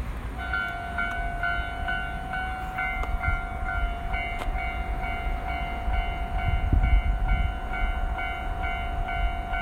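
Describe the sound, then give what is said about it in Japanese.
A train rumbles past at a railroad crossing while the crossing bell rings in a steady, repeating pattern above the heavy low rumble of the wheels, loud throughout. “踏切ロケ地だったかな”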